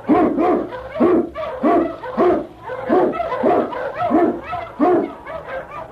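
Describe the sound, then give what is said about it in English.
King, Sergeant Preston's Eskimo sled lead dog in the Yukon, barks loudly and steadily, about ten sharp barks in a quick, regular rhythm with no voices. “King, the swiftest, strongest of Eskimo lead dogs, blazes the trail through storm and snow for Sergeant Preston as he meets the challenge of the Yukon.”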